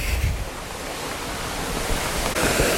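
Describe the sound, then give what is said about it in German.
A waterfall, the goal of a tourist hiking tour, rushes steadily in the background, a dense, continuous roar of falling water that fills the whole stretch without pause, fairly loud and even, with no one speaking. “Und was man hier im Hintergrund hört, ist schon der Wasserfall.”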